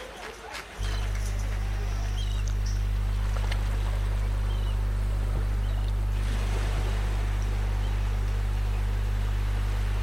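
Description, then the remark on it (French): Small waves lap and splash continuously beneath a loud, steady low engine drone, as if heard from aboard a moving boat, with a faint breezy hiss throughout. “ça fait du bien d'entendre ces petits bruits de vagues.”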